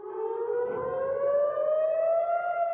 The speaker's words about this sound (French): Vers 6h30 du matin, les premières roquettes sont tirées sur Israël depuis la bande de Gaza. Le début de l'attaque surprise et massive du Hamas. Très vite, les sirènes d'alerte retentissent dans le centre